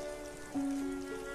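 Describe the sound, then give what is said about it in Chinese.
Steady, soft patter of rain in a scene from the film of the musical Les Misérables, hissing continuously, with a sustained low musical tone coming in about halfway through and holding under the rainfall. “这个片段来自电影，所以能听到片中淅淅沥沥的雨声。”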